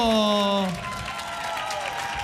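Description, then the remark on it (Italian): A live audience at a radio broadcast applauds with dense, steady clapping throughout, opened by a loud sustained vocal note that slides downward before fading into the applause. “Non so se dalla radio si può percepire, però ogni singolo applauso è incredibile.”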